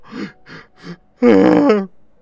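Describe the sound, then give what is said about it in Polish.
A voice imitates three short, breathy creaks like a wagon creaking, then breaks into a single loud, sustained wailing cry of a young female beaver sobbing, lasting well under a second before cutting off. “Ale płacze jak bóbr bardzo głośno, zanosząc się, szlochając.”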